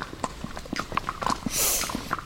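Steady clip-clop of the hooves of a horse being ridden, walking at an even pace, with a brief rustling hiss partway through and no talking.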